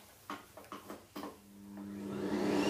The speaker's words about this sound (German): es geht los mit, deine, mit deiner Staubsauger. Ja, Staubsauger.